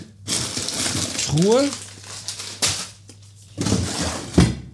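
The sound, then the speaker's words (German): Someone rummages through a chest freezer for a Bofrost low-carb Chinese cauliflower rice: crinkling plastic packaging and shuffling items, a brief rising squeak partway through, and a low steady hum underneath, ending with a couple of louder rustles and knocks. “Ich schaue noch eben kurz ah, in die Tiefkühltruhe,”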